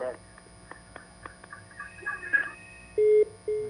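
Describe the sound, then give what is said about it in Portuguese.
A caller's faint, muffled voice over a telephone line during a call-in broadcast, then the call drops and two loud, steady low-pitched beeps of the disconnect tone sound in succession, the second cut off. “Caiu a ligação.”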